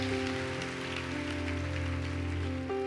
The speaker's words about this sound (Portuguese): Vamos aplaudir bem alto o nome de Jesus. Se aplauda já se colocando de pé.